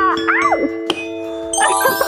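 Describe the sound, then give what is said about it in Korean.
A bright ding-dong-dang correct-answer chime marking a right answer in a voice-impression quiz rings out over excited voices and laughter, with a sharp hit midway and a high sparkling tone closing it out. “처음에 시작할 때 아직까지 그게 너무 갑자기 빵 터져가지고 제가 이번 딩동댕 드렸거든요.”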